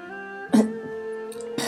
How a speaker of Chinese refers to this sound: 萧玉伦听着九姨的咳嗽声，好似还挺严重的。